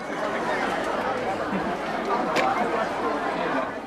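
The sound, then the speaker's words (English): A steady, dense babble of many voices: an indistinct crowd of families chattering all at once outside a theater in Beijing before an acrobatic show, at a constant moderate level, with a brief sharper sound cutting through midway. “We waited with the crowd outside the theater as our guide collected our tickets at the counter.”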